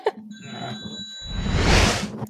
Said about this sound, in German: Warte mal, Telefon. Telefon.